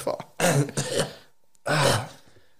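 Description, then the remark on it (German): Someone clears their throat in a few rough, raspy bursts, pauses briefly, then gives one more gravelly clearing. “Frosch im Haus.”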